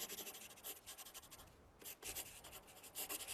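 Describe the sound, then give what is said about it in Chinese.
A pencil scratches across paper in quick, uneven strokes, drawing a boa constrictor, with a brief pause midway before the dry, rasping sketching resumes. No voices are heard. “由于我从来没画过绵羊，我就给他画了我只会画的两幅中的一幅，就是身体被封闭的蟒蛇。”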